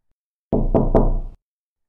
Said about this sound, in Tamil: and திடீர்னு எதிர்பாராத விதமாக உங்கள் கதவை யாரோ வந்து தட்டுறாங்க